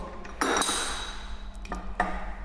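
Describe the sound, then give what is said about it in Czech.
A few sharp metallic clanks and clinks, one heavier press followed by two lighter knocks, as a hand-operated lever bottle capper crimps a metal cap onto a filled bottle. “A v momentě, kdy je lahev plná, zavřeme kohouty, odmontujeme, předáme kolegovi jako v manufaktuře Eh, do dalšího zařízení, to je zátkovačka na lahve, tam vložíme víčko”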